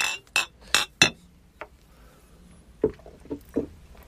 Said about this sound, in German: Und äh, Prost, oder? Dann können wir mal ganz, ganz kurz nochmal anstoßen. Das, das dürfen wir, glaube ich, schon machen. Prost.